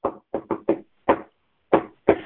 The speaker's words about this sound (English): go to the home, do a friendly knock